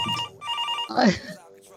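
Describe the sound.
A telephone rings with a bright, steady electronic tone, repeating in short pulses, fairly close and loud, while voices briefly talk over part of it.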